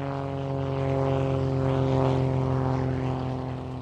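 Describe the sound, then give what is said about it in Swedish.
A propeller airplane passing over a desert landscape drones steadily overhead, its engine hum swelling slightly in the middle and easing off, continuous with no voices. “Inte förrän militära och civila piloter passerar över ökenlandskapet med flygplan under 1930-talet.”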